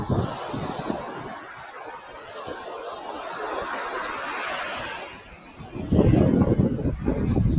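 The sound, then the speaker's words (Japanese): Steady afternoon surf on the seaside at Hayama, Japan, washes in broad, hissing swells, with gusty sea wind buffeting the microphone and a louder surge of crashing water near the end; no one speaks. “午後の波音とシトラスの風”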